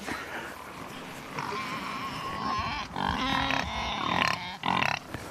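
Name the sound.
pigs grunting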